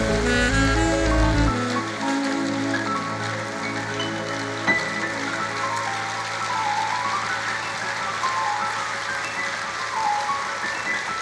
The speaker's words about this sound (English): Give the Lord a big, big clap offering. Hallelujah.